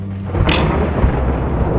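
A loud clap of thunder following a flash of lightning bursts in suddenly and rolls into a heavy, deep rumble that keeps going with a few sharper cracks, with no voices.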